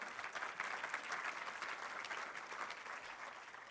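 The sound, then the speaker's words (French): An audience claps steadily for a few seconds, a dense, even patter of many hands at a fairly constant moderate loudness, with no voices standing out. “Oui, ça mérite un main applaudissement.”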